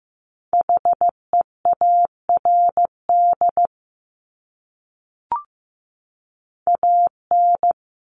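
Morse code beeps at 15 words per minute in a steady, clear tone, keyed as quick dots and longer dashes in a few spaced letter groups, with a brief click during one pause and no voices.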